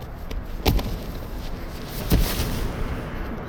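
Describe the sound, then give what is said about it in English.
Two sharp gunshots ring out about a second and a half apart as a sheriff shoots a woman, Kimber, in the chest in the snow in the drama Borrasca. Each is a sudden loud crack that quickly fades over a steady, hissing background of wind-like noise. “The sheriff shot Kimber in the chest where she stood.”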